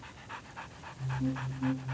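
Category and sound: animal, dog barking and panting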